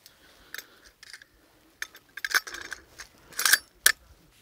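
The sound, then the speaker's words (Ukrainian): A rifle bolt is inserted while the rifle is being assembled, sliding into place in its uppermost position with a series of sharp metallic clicks and scrapes, irregular and bright, the loudest clacks coming near the end, with no one speaking. “Вставляємо затвор. Він повинен бути у верхньому крайньому положенні.”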